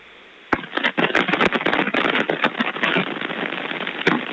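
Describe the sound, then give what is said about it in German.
Continuous scratchy rustling and crackling of a phone in a pocket during a call, like fabric rubbing against the phone microphone, with sharp clicks scattered throughout and no voices. “Aber könnte auch jemand sein, der sein Handy in der Hosentasche hat.”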